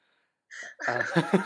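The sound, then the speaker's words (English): A sharp intake of breath followed by a single explosive sneeze that trails into breathy, voiced sounds, with no talking around it. “oh bless you”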